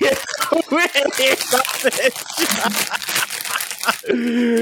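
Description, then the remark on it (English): A McVitie's biscuit packet's plastic wrapper crinkles and rustles, with laughter and voices mixed in over the noisy crackling, ending in a brief steady tone. “the sound of crinkling. And the sound no. of McVitie's rustling take, in the background.”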